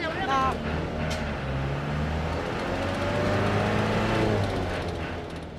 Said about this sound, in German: Endlich ist der Bus voll und es kann losgehen.